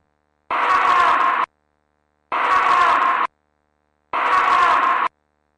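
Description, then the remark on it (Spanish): A psychophony (EVP) recording from the castle of Santa Bárbara: a strained, scream-like female cry, noisy and distorted, plays three times in identical one-second bursts separated by short silences, fairly loud with no talking around it. “Esta vez con una voz femenina. Esto es una especie de alarido, es pero más bien un grito, ¿sí?”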